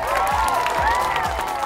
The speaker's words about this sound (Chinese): 来，掌声送给我们的马云爸爸！